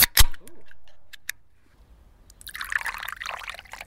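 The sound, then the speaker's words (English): A few sharp clicks and clinks as bottles and a can are opened, then a quiet pause before water pours steadily and splashily into small tasting glasses for a blind taste test, moderately loud. No one speaks. “got a hold of some tap water, and then he opened and poured each bottle and one can.”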